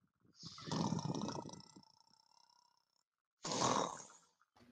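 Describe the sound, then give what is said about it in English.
Two loud, rasping snores from the other side of a door, a long drawn-out one followed by a shorter one after a brief pause, with a rough, growling texture and no talking. “You can hear snoring from the other side of the door.”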